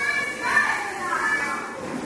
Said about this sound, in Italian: E intanto al Talitacum i bambini fanno la recita di Natale, così le loro mamme vivono il quartiere.